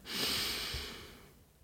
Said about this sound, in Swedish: Och vi bara avsluta med att ta ett djupt andetag tillsammans och andas in, fyll upp magen.